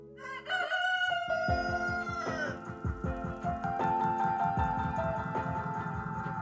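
A rooster's crow, pitch-corrected into flat, stepped musical notes, rides over a steady thumping beat, loud and close throughout.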